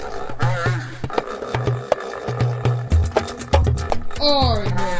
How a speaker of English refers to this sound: Polar bear, polar bear, what do you hear? Well, I hear a lion roaring in my ear.